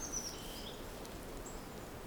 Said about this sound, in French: quels son qui émanent de la forêt de marque Bah, particulièrement les oiseaux, là, qu'on entend. Le bruit du vent dans les feuilles des arbres. Ces grands monuments, là, devant nous.